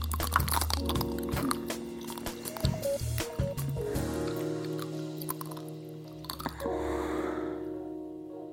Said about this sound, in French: Et si vous cherchez d'autres spots euh, sur YouTube, par exemple, vous trouverez euh, des femmes, beaucoup de femmes croquant goulûment dans leur esquimau, les yeux fermés, des femmes qui souvent auront préféré se taper une glace plutôt qu'un homme.